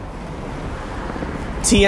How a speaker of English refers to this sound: right as I was saying celebrity sighting, all of a sudden that, that bus passed by me